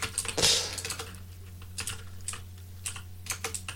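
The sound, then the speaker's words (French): Quick, irregular clicks of typing on a black computer keyboard in the dark, fairly crisp, with one louder burst near the start over a low steady hum, no voices. “On va y arriver, surtout avec un clavier noir dans le noir.”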